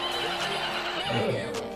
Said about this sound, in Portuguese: Ah, já, esse é o cavalo, é o bife a cavalo que você pediu pra gente almoçar hoje, foi?